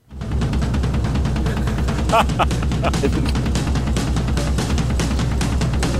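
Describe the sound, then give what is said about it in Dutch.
A loud drum solo pounds with rapid, continuous double bass drum strokes played by alternating left and right feet, the kicks rolling in a steady rumble under bright cymbal crashes and fills for the whole stretch. “… en na hem ook menig metal drummer gebruiken hun linker en rechtervoet en wisselen af.”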